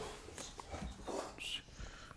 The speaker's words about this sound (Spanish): Perdón ese ruido, pero si están escuchando esto, tuve que cambiar de spot. y mi perro se acaba de meter y está roncando como si estuviera un señor de 60, Como si fuera un trailer.